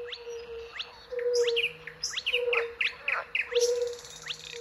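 A spotted crake calls with repeated sharp, whistled upswept notes in a steady rhythm, set against a wetland chorus of other birds and a constant low droning hum.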